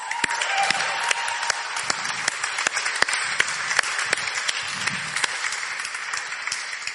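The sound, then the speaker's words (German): A crowd of on-site helpers at the Connect church applauds themselves steadily, with dense overlapping claps filling the space for several seconds at a fairly loud, even level, with no one talking over it. “Gebt euch einfach selber mal einen fetten Applaus.”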